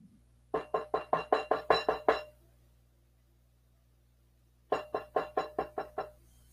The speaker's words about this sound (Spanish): Ay, creo que abren, llaman a la puerta. ¿Quién será a estas horas?